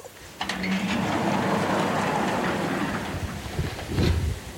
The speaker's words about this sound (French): Allez, on ouvre. Attention. La porte est un peu lourde.